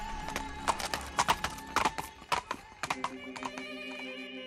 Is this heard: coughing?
no